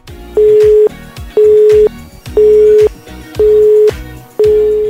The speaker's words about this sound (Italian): il suo telefonino, diciamo, non è raggiungibile, non è raggiungibile, non riusciamo a prendere la linea